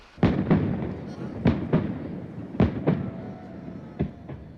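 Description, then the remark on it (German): New Year's Eve fireworks on Carlton Hill in Scotland, ending a torchlight procession alongside a laser light show. They bang in a loose series of sharp, booming bursts, several arriving in quick pairs, each with a short rumbling tail over a steady crowd-like murmur. “Der Fackelumzug geht mit einem Feuerwerk und einer opulenten Laser-Lightshow auf dem Carlton Hill zu Ende.”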